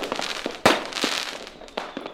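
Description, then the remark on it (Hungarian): Fireworks crackle and pop in quick succession, with a sharp loud burst near the start and several smaller cracks scattered over a hissing, sparkling background, no voices present. “Jön a tűzijáték.”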